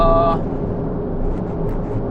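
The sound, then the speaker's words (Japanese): A turbocharged car accelerating hard along a highway merge lane, overtaking an ordinary car, heard from inside as a steady, loud low engine and road rumble, opening with a brief electronic tone. “はい当番車線よ一気に加速するわよ当番車線よ加速するわよ”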